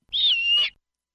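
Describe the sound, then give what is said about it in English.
A single call from a snowy owl named Morton, perched on a roof in Cypress: one steady high-pitched tone lasting just over half a second, clear, with no voices or other sounds around it. “At Morton the Snowy Owl, who got lost and came to LA to go to Disneyland and is in Cypress on a roof.”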